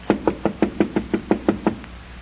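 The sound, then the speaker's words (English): A quick, steady series of about ten firm knocks on a locked wooden door in a tall wall, fairly loud, the last one fading softer, with no voices. “So quickly, of course, they climbed off the horse, and before you could count up to two, they knocked and knocked, but the door was locked.”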